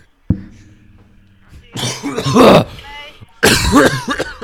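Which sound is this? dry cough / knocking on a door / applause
dry cough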